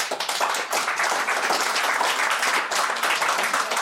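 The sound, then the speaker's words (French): Audience applause at a stand-up comedy show, answering the comedian's question of who is seeing stand-up for the first time tonight: a dense, steady patter of many hands clapping at once, loud and continuous without any pause or voices over it. “Par exemple, qui voit du stand-up ce soir pour la première fois par applaudissement”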